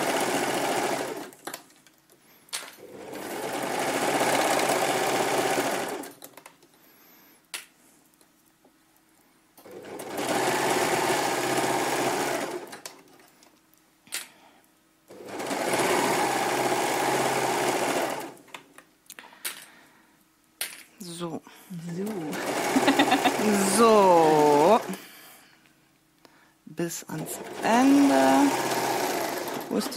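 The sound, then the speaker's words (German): A sewing machine runs in several steady bursts of a few seconds each, stitching on the first part of the first sleeve, a dense whirring hum separated by pauses, with someone speaking briefly between and over the later runs. “Genau, der erste Ärmel ist jetzt hier der erste Teil angenäht.”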